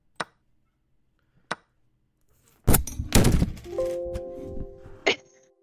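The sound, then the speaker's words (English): Two light taps, then a microphone smashes loudly against a desk in a burst of heavy thuds and rattling crashes, followed by a steady ringing hum and one final sharp knock. “I smashed the mic on my desk.”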